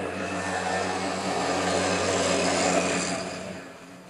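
A small moped engine drones steadily with a buzzing, harmonic whine, fairly loud, holding for several seconds before easing off slightly at the end. No voices are heard.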